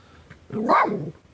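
dog barking

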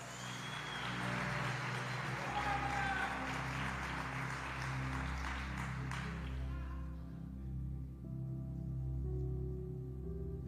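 audience applauding

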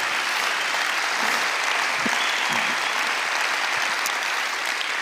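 audience applause

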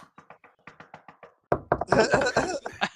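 knocking

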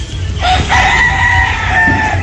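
rooster crowing

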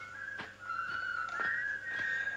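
person whistling a tune

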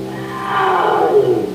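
saber-toothed tiger roar

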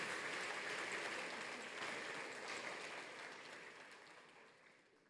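audience applause

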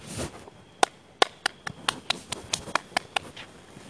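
hand clap

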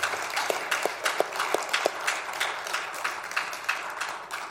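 audience round of applause

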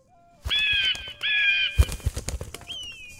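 bird calls

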